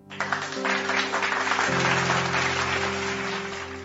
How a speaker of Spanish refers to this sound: Hoy estamos alegres. Un aplauso ahí, por favor.